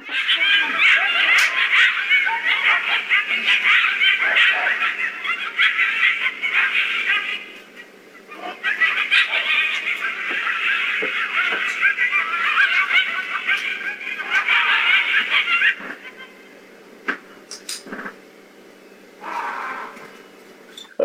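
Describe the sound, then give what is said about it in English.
A frantic, high-pitched chorus of coyotes yipping and howling goes on in two long bursts, then drops away to near quiet before one shorter, raw yelling cry rings out near the end. “So what we hear the coyotes yipping, we hear them yipping away, and then all of a sudden we hear what sounds like some sort of a, a yell, like a raw, like that.”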